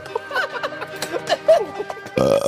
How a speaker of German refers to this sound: War das der Start? Ja. Hast du zum Start gerülpst